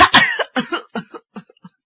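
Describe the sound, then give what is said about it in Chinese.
A voice performs a fit of coughing as the character Li Xunhuan, who starts coughing in agitation: a couple of loud, harsh hacks followed by a quick run of smaller coughs that grow fainter and trail off, with no talking. “李寻欢是一着急咳嗽上了。”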